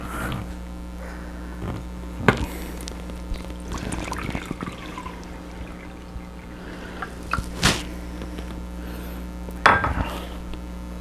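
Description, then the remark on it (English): Brita water is poured into a rice cooker bowl, one cup of water for one cup of rice, in short splashy bursts, broken by a few sharp clinks of the container, over a steady low background hum with no talking. “So you use one cup of rice, making one cup of rice, you put it in one cup of water.”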